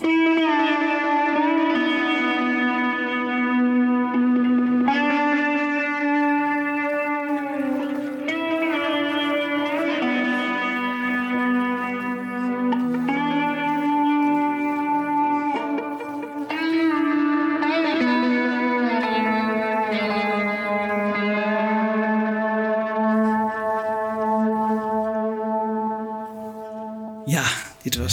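A lone slide guitar plays a slow, singing melody, its sustained notes gliding smoothly between pitches with a bright, echoing tone and no other instruments or voices.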